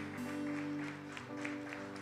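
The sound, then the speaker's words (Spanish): An audience claps steadily in a fairly loud, continuous, reverberant applause of thanks to the Lord during a morning worship, with sustained organ or keyboard chords ringing underneath. “Te damos gracias, Señor, te amamos, te adoramos y en esta mañana te damos un fuerte aplauso de reconocimiento.”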